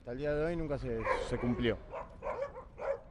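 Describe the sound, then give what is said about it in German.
Several dogs on a group dog walk bark and yip, a long whining yelp first, then a string of short, irregular barks that overlap one another. “Laut Vorschrift dürfen wir nur mit acht Hunden gehen”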